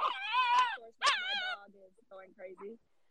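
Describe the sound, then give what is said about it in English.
A feisty 10-pound male dog lets out two long, high-pitched wavering whines, followed by a few shorter, quieter yips and whimpers. “That's what you get when you have a feisty 10 pound dog.”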